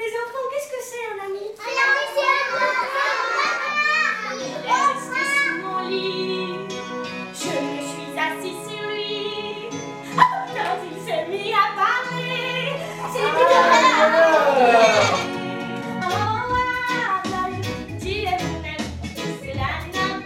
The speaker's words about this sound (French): En tout cas, là, on voit que les enfants participent hein, dans cette bande-annonce. Hein. On les entend euh, tout du long.